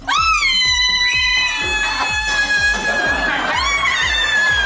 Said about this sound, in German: Das war doch die mit dem lautesten Schrei, der jemals gemessen wurde. Ich glaube, so laut wie ein Flugzeug. Richtig, das war genau dieser Schrei hier.